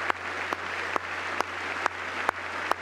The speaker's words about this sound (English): The cheers continue.